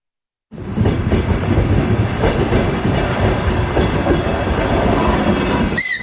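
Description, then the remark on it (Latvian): A passenger train on an extra holiday run from Riga to Liepāja rumbles steadily along the rails at Saldus railway station, Latvia, on 26 December. It is loud, with a dense low-frequency roar and rhythmic wheel clatter, and a brief high squeal near the end. No one speaks. “Šoreiz vilciens no Rīgas uz Liepāju devies papildus reisā, tāpēc iespēja aizbraukt līdz Liepājai ir arī dienas vidū.”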